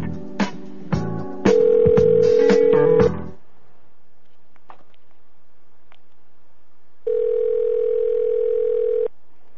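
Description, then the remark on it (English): A telephone dialing sequence as someone calls a person back: a rapid run of button tones and clicks layered over a steady tone, then a pause of faint noise, followed by a second steady dial tone lasting about two seconds. “we're going to call him back now.”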